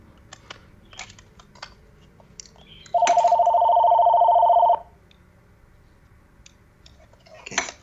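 A phone rings once in a loud, steady electronic trill lasting under two seconds, with faint keyboard-like clicks before and after and no voices.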